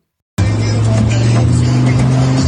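A Lamborghini sports car engine cuts in abruptly and holds a loud, deep, steady roar while driving through Gelsenkirchen, with no voices.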